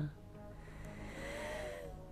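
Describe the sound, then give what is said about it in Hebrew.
A slow, deep breath drawn in and let out during a guided breathing meditation, soft, with a faint airy rush over a quiet background and no talking. “אז ניקח עוד כמה נשימות גדולות, ותוך כדי נדמיין אור זהב שיורד מהשמיים.”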